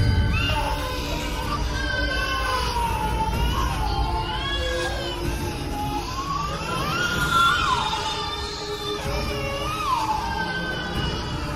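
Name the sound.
babies crying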